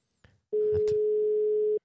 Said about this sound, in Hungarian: most csak a bal fülembe hallom a kicsengést